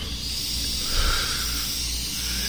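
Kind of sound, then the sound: vocal imitation, imitated yawn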